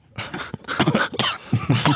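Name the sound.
cough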